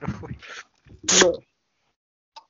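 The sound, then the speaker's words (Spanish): A person makes a quick, squeaky kiss noise that sounds like a tiny kitten sneeze, with a couple of short breathy vocal bursts before it and a faint click after. “Ah, un beso no mames, sino como estornudo de gatito.”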